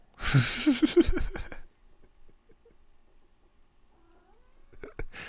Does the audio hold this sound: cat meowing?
yes